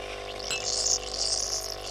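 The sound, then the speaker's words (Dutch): Coffee being poured in Nijmegen, a steady splashing hiss of liquid that swells and ebbs over about two seconds, with no one speaking. “Eh, de koffie is ingeschonken.”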